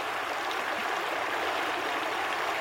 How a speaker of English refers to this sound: Let's leave the Roman songs and noise making aside and plunge once again into the enchanted sounds of the river and its springs a little further.